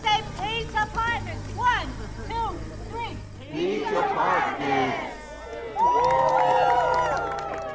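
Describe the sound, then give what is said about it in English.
A crowd of about 100 people cheers and chatters outdoors at a groundbreaking on Johnson Street in the Pine Knolls neighborhood of Chapel Hill on Tuesday morning, as a dozen local leaders and nonprofit staff shovel the first dirt of the Peach Apartments project. Many overlapping voices rise into loud whoops and shouts over a steady low hum, ending in excited cheering. “around 100 people gathered on Johnson Street in the Pine Knolls neighborhood in Chapel Hill Tuesday morning, cheering as a dozen local leaders and nonprofit staff shoveled the first dirt of the Peach Apartments project.”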